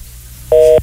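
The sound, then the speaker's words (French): A single steady electronic dual-tone beep, like one telephone keypad button being pressed while dialing a phone number, sounds clearly for about a third of a second over faint background hum, with no talking. “Ça sonne comme le 819. Faut-tu que je fasse le 9?”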